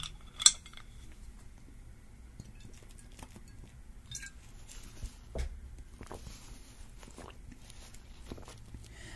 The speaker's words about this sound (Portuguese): Eu preciso tomar água, peraí. Minha garrafa de água.